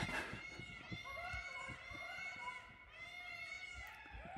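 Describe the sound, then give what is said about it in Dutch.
Peacocks call repeatedly in loud, drawn-out nasal wails that overlap and carry through the whole stretch, with soft thumping and rustling noises underneath. “En nu horen we ook nog pauwen.”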